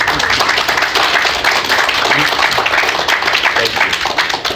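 A crowd applauds a pastor as he is invited to come up, with dense, steady clapping that stays loud and even for several seconds and a faint murmur of voices mixed underneath.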